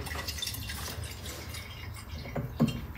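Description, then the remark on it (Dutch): A little cold water trickles and splashes steadily into a cup, a continuous liquid pour with a few brighter drips near the end, no one speaking. “Ik doe eerst een beetje koud water erin.”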